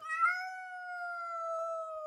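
A single long, drawn-out meow from a cat kept in a prison, steady and sustained for about two seconds, clear with no other sounds around it.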